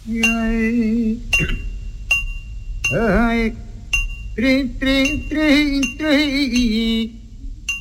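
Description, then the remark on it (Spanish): Sharp metallic hammer strikes on an anvil ring out every second or so in a forge-themed recorded song, each leaving a bright lingering tone, under a man's loud, wavering sung vocal. “hablando de fragua, no puede faltar el sonido del martillo en el yunque”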